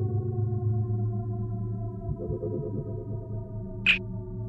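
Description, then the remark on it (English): A steady, sci-fi style electronic drone hums with layered sustained tones, then a single sharp, high-pitched scanning beep chirps briefly near the end, from a tricorder device just received in the mail. No one speaks. “It sounds like the tricorder.”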